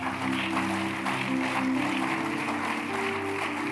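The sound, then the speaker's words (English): A crowd claps steadily and continuously for a few seconds, a dense patter of many hands, while a sustained keyboard or organ chord hums underneath. No one speaks. “Your clap.”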